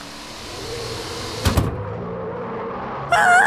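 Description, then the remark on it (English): A car comes along the street as boys cross it, with a steady low engine rumble, broken by a couple of sharp knocks partway through before a brighter, louder sound cuts in at the end. “Careful crossing the street, boys. There's a car coming.”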